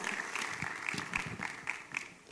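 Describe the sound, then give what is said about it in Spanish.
An audience applauds steadily to welcome a guest speaker, a dense wash of many hands clapping at once with a few sharper individual claps standing out, sustained at a fairly even loudness throughout. “Así que recibámosla con un aplauso de cariño y eh, de verdad bienvenida, licenciada.”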